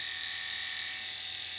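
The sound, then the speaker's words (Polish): A small electric trimmer for styling sideburns and mustaches hums steadily and quietly, a thin, even motor buzz with no change in pitch and no voices. “Tak działa trybek.”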